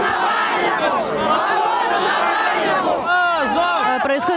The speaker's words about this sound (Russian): Очередное задержание. Толпа скандирует позор.